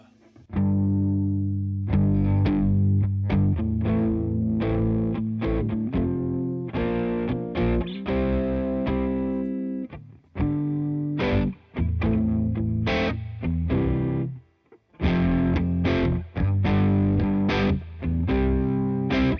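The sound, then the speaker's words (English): A heavily distorted electric guitar plays thick, sustained chords through effects, loud, with brief drops to near silence around ten and fifteen seconds before the riff resumes. “So so the secret the, is the skeleton. Lots of distortion.”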